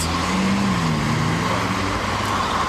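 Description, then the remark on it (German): A van bound for the hospital drives past through a gap in the traffic, its engine rumbling loudly, with a steady wash of surrounding traffic noise filling the background throughout. “das ist das Auto, was hier ins Krankenhaus soll. Und jetzt können sie auch alle durchfahren.”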